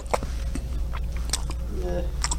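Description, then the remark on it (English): A voice imitates slow, wet chewing, like a cow working its cud, with a few moist smacking bursts spread across a couple of seconds, over a low steady hum. “And then he'd go lay under a tree and then belch it up. And then sit there and chew.”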